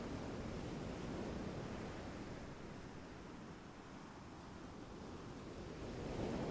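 Ocean waves wash continuously onto the shore in a broad, steady roar, swelling slightly at the start and again near the end, with no voices present.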